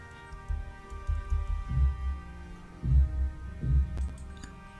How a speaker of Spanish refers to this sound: perdón, estaba oyendo, se oyen martillazos, ah, sí,